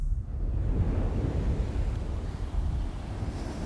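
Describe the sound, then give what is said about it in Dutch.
Steady wind rumble and the broad wash of surf on the still-deserted beach of Vlieland on a Thursday morning roll on without pause, a dense low roar that stays fairly even throughout, with no voices present. “Het strand van Vlieland is op dit moment nog verlaten, heel stil.”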